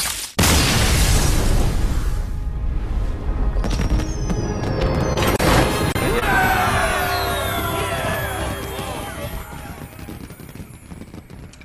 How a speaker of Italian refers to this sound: questi sono i fuochi d'artificio che eh, vi fanno capire quanto siamo stati bravi.